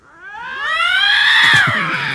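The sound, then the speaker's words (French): Two male lynx yowling in a tense confrontation: a loud, drawn-out wail that climbs and swells, with gruff throaty pulses breaking in toward the end. No one speaks. “Ça, c'est la femelle euh, Non, non, ça, c'est deux mâles qui se rencontrent. Ils sont pas d'accord du ah tout.”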